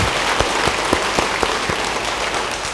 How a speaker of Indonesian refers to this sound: Beri tepuk tangan buat Tuhan. Haleluya.